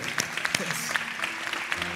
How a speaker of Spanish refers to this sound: Vamos, dale un fuerte aplauso a Dios.